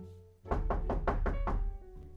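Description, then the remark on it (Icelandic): Five firm knocks on a door by an arriving visitor, in quick, even succession, fairly loud, with a solid wooden thud to each rap and no voices. “það er komin gestur, getur þú farið til dyrra?”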